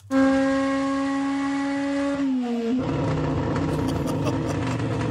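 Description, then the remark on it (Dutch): A DTM race car engine, the same engine as used in Super GT, screams at high, steady revs, then its pitch dips as it shifts and gives way to a rougher, rumbling roar. Loud, with no voices. “Dus DTM heeft nu een motor gemaakt die dezelfde is als de Super GT”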